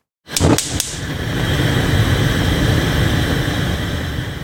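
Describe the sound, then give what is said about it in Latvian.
Three quick igniter clicks, then a gas burner catches and settles into a steady, even roaring hiss that continues unbroken to the end, with no voices present. “Tā izklausās gāzes degļa aizdzināšana nu, vai ieslēgšana.”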